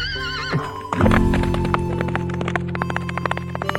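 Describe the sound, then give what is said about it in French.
A horse whinnies loudly with a wavering, high-pitched call, then hooves clip-clop in a steady, quick rhythm over a low droning hum. “Allez, on monte à cheval et on part à la conquête de l'Ouest.”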